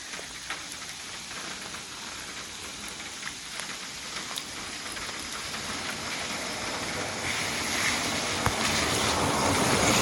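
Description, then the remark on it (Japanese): Steady rain falls and patters across a surface at a mountain trailhead after a hike, a dense hiss with scattered individual drops, growing slightly heavier toward the end; no voices are present. “雨に降られてるんですけどもね、山の中はあんまり水に当たらなく、パラパラと当たって気持ちが良かったです。”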